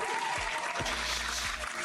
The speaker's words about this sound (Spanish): Bueno, no sé si para tanto, pero aplausos.